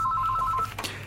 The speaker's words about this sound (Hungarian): Bocsánat, van egy, van egy telefonunk.